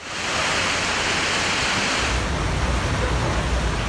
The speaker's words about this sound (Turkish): İstanbul güne işte böylesine kuvvetli yağan bir sağanakla başladı. Yer yer 10 dakika, bazı semtlerde 15-20 dakika etkili oldu yağmur.